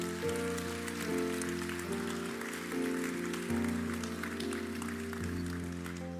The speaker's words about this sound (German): Können wir einen Applaus geben an all diejenigen, die sich entschieden haben.